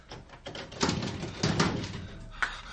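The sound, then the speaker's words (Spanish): A door is pushed open, with a few scraping, knocking bursts over about three seconds, moderately loud against a quiet, slightly hissy background. “Empuje la puerta.”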